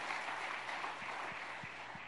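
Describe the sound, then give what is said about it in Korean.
A church audience applauding together to encourage the young people of the college group, a dense steady wash of clapping that fills the space evenly from start to finish at moderate loudness, with no voices over it. “예, 우리 우리 젊은이들이 하나님의 능력으로 설 수 있도록 다시 한번 박수 한번 Let's 부탁합니다.”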